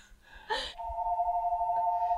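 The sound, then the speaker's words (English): A short rustling burst, then a steady electronic phone ringtone holds on without a break, fairly loud, with no one talking; someone is calling the bat line. “Someone calling the bat line. That's the bat phone, huh?”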